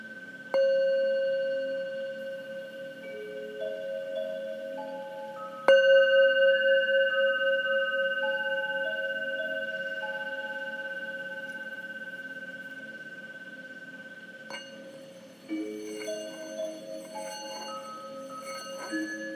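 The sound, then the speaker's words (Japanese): A singing bowl is struck three times, each strike blooming into a sustained, shimmering metallic hum with steady overtones that slowly fade; the last strike adds brighter, higher ringing partials. No talking. “シンギングボウルと周波数音楽♪鳴らしてみました”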